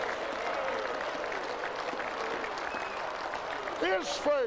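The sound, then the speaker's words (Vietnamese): A crowd applauds for Jesus steadily throughout, a dense even clatter of many hands, with a voice rising over the clapping near the end. “Hãy vỗ tay cho Chúa Giêsu.”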